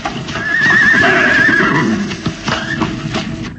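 A horse pulling a wagon gives a long, loud wavering whinny, followed by clattering hoofbeats and movement as a man pulls the reins, whips the horses and the wagon sets off.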